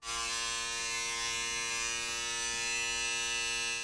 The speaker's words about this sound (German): Dann eine Hornisse.